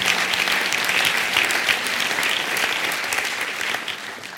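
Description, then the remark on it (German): Steady, loud applause from a live audience, a dense crackle of many hands clapping at once that holds its level throughout and tapers only slightly at the end, with no voices over it. “Also so mal ganz generell, in München haben die Leute echt viel länger und viel härter geklatscht.”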